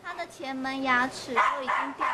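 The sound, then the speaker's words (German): A neglected, toothless female dog, about ten years old, at an animal rescue in Taiwan lets out a run of short, high-pitched barks and yips, its voice rising and falling in quick succession over about two seconds. “Diese Hündin ist etwa zehn Jahre alt.”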